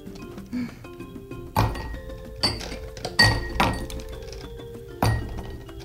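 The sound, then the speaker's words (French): Ice cubes drop one after another into a glass as drinks are prepared in a studio, giving five or six sharp clinks at uneven intervals, each leaving a brief glassy ring. No one speaks. “Je vais mettre les glaçons aussi dans, le verre, sans faire des dégâts.”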